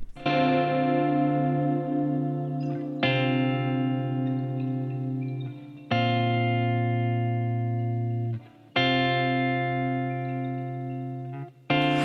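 An Algerian rock instrumental passage: loud, heavily distorted guitar chords ring out in long sustained blocks, shifting to a new chord roughly every three seconds, with no singing.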